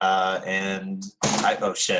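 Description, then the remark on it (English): A sudden loud crack from a desk chair breaks in after someone speaking, followed right away by a startled exclamation. “That, was my, that was my chair.”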